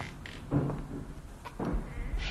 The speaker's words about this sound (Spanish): Por los golpes podemos intuir que hay alguien al otro lado de la puerta.